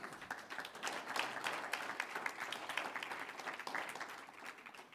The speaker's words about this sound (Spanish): Digan gloria a Dios. Aleluya. Un aplauso al Señor.